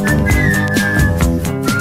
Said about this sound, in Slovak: vynikajúca pískačka … alebo teda …